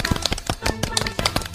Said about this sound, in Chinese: 大家都在 掌声好齐啊！